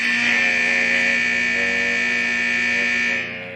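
A loud, harsh electronic buzzer blares continuously for a few seconds at steady pitch to end a segment, then cuts down and fades as it ends, with faint voices murmuring beneath it.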